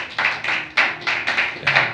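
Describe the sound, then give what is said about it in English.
An audience clapping together at a church sermon, clapping for God, a dense crackle of many hands with a loose, steady beat roughly four strikes per second, fairly loud and with no voices over it. “Clap for God. Clap for God.”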